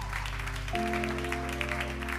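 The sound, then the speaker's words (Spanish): A crowd claps steadily and loudly for a couple of seconds, a dense crackling wash of hands, while sustained low keyboard chords play underneath and shift to a new chord partway through. “¿Alguien puede dar un aplauso fuerte?”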